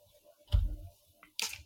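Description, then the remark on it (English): A spray bottle squirts water at a cat in two quick bursts: a muffled spritz with a soft low thump, then a sharper, hissing spray a moment later. No one speaks. “You may have heard me just spray my cat because he's trying to get in my lap.”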